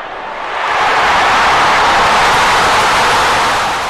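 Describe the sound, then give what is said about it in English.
A loud stadium crowd roars as a dense, hissing wall of noise that swells up over the first half second and then holds steady to the end, with no clear voices. “Um, but just just listen to the crowd noise in this bad boy.”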